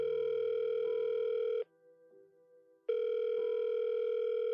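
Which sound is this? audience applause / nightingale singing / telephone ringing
telephone ringing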